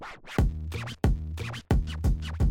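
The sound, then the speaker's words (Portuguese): A rat's scratching noise: four loud, raspy scraping bursts in quick, uneven succession, harsh, with no talking. “Barulho de rato.”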